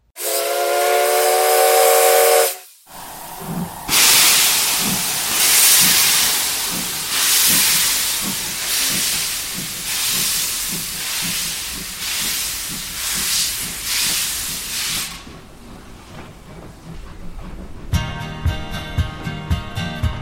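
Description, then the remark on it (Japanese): A steam locomotive pulls away: a sharp, loud whistle blast opens, then rhythmic chuffs and hissing steam build in a steady beat, ending with a clattering, rattling pulse of wheels. “鉄旅、万有記第3号、出発、進行”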